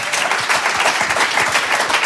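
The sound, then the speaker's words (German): Audience applause fills the whole stretch, a dense, steady wash of many hands clapping at an even, fairly loud level with no voices over it. The applause follows a recorded song played during a radio broadcast. “Das ist auch toll, dass man Beifall kriegt für eine, äh, für eine Konservenmusik, oder?”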